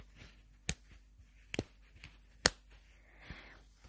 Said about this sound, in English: Um, and there's a snap or magnetic fastener. I like a good magnetic fastener because it makes this noise.